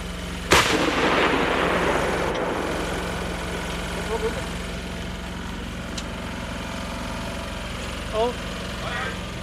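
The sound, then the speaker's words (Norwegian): A single heavy blast from a vehicle-mounted artillery gun of an artillery battalion firing live rounds on exercise at Verena leir, test-firing older fuzes, booms out near the start, followed by a long rumbling echo that fades slowly over a steady low engine drone, with faint voices later. “Fra vognene, som de enkelt og greit kaller kanoner, skyter de med skarpt.”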